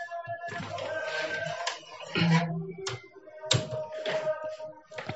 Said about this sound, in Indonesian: bentar saya tutup pintu dulu bentar ya